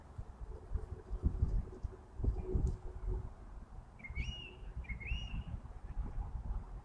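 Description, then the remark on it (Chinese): A blackbird mimicking other birds' calls gives two short, clear whistled phrases in quick succession, sliding and warbling, over a steady low rumbling background noise. “就这么一会儿，它模仿了多少种鸟的叫声？”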